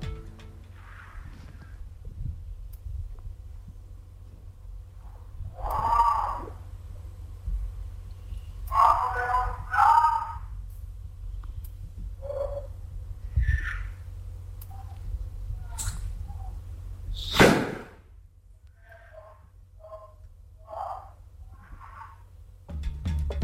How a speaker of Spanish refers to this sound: Pero esta psicofonía tiene una cosa muy interesante. Ese fragmento de sonido de disparo ha sido analizado por expertos en banística